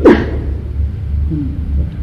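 A single sharp sneeze bursts out at the very start, fairly loud, then fades into a low, steady background rumble with no voices.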